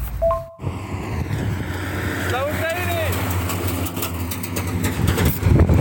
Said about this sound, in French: Là, tu viens d'entendre passer un grade, c'est un camion euh, militaire avec des missiles en fait euh, à l'arrière et qui se dirige dans une direction qu'on ne dira pas pour protéger sa position.